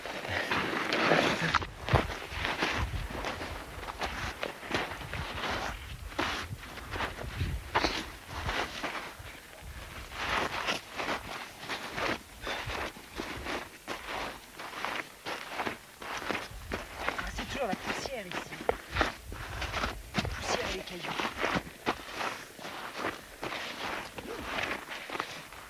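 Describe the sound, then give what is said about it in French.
Steady crunching footsteps scramble uphill over loose volcanic rock and black gritty dust on a volcano, continuous, with occasional scuffs and slides and a faint breeze in the background. “Et comme on vient de faire un peu de, grimpette dans les rochers et dans la poussière, une ou deux”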